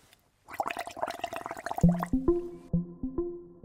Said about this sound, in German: Stoßen Fische vielleicht doch einfach Luft aus unter Wasser und macht es dann nicht einfach irgendwie blub, blub, blub, blub, blub, irgendwie so, so wie das jetzt hier mit unserem Trinkhalm ist?